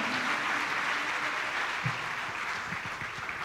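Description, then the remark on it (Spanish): A standing audience at a night church service applauds the Lord steadily, a dense wash of many hands clapping at an even, sustained level for the whole stretch, with no voices standing out. “Si quiere darle un aplauso, déle un aplauso al Señor, alabándole, adorándole, exaltando su nombre.”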